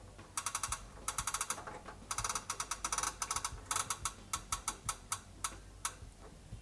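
A stepped rotary equalizer knob with seven preset positions being turned, giving crisp detent clicks in quick bursts of several at a time, separated by short pauses, with no talking.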